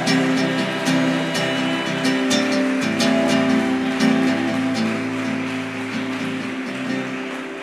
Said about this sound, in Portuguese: Vamos todos aplaudir, Jesus. Obrigado, Jesus.